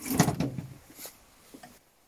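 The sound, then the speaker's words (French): A heavy bus door slams shut with a rattling clatter, followed by a couple of fainter knocks and scrapes as it is tied shut with a rope at night, then quiet. “Et pour éviter qu'un grizzly vienne gâcher cette nuit de rêve, je ferme la porte du bus avec une corde.”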